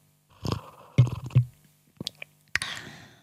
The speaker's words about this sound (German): wie ich die ganze Zeit mein okay, oh, Tee schlürfe.